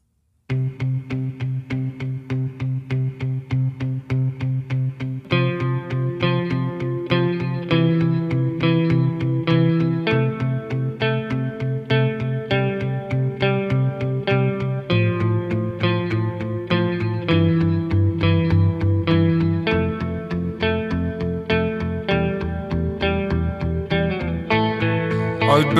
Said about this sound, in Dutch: we gaan luisteren naar het hart van het album, het nummer ….